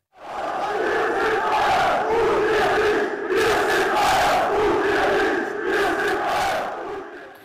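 A large crowd of dissatisfied Bayern München fans shouts and jeers angrily at the club's annual meeting, which ended in chaos over a proposal to drop a sponsorship. The noise comes in loud, sustained waves, with rhythmic surges of chanting and booing filling the whole clip.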